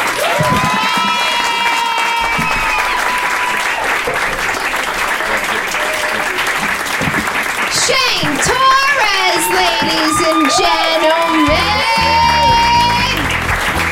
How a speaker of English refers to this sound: Keep that round applause going for all the fucking 10 comics that you saw this evening.